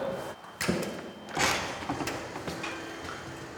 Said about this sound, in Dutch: En dan zijn we, ja, je komt dan gewoon naar binnen door de deur, we vangen nu op en we zeggen hallo en ik zei ook hallo.